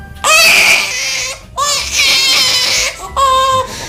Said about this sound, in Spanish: que si el niño o la niña piden un bebé de esos que hacen lo mismo que los de verdad, que lloran cuando tienen hambre, que mm, hacen pis, etcétera